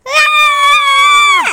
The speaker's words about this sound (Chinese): 雨伞之下，两姐妹一声尖叫，啊！